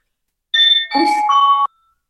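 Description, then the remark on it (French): A school bell chime sounds once at a school as a short electronic melody of a few steady, stepped tones lasting about a second, clear, with no voices around it. “Ah, on est à l'école, on entend la cloche, c'est formidable.”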